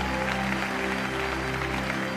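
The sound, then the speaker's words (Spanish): A church audience claps in steady, dense applause for God, the 'King of Kings', a continuous wash of many hands at even loudness, with a low sustained hum of instruments beneath. “Dale un aplauso grande al Rey de Reyes.”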